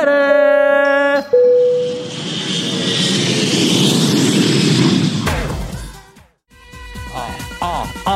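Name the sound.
airplane taking off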